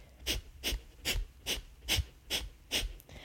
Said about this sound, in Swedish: och gör man de här kapalabati eller eldal- eldandning och pumpar magen, andas, eh, nu ska vi se, precis, vi har en aktiv utandning samtidigt som vi pumpar magen in och inandningen sker helt av sig själv. Så det låter ungefär så här.